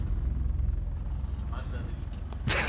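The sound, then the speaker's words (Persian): A car's low engine rumble drones steadily, ending with a sudden loud, broad whoosh as it seems to pass by. “الان خیلی هم این صدا ماشینه آره.”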